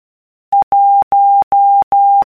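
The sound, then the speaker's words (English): A steady mid-pitched Morse code beep spells out the number 1, one short dot followed by four long dashes, crisp and fairly loud with even gaps between them and no other sound. “Morse code”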